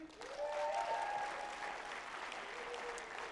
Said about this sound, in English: You don't even know why you're honoring them, but you're clapping.